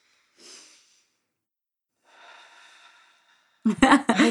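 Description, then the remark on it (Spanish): A slow, deliberate breath drawn in, a pause, then a long airy exhale, followed by a burst of speech at the end; a demonstration of a breathing exercise done for two minutes each day. “eso lo haces y eso lo haces por dos minutos. Entonces, respiración.”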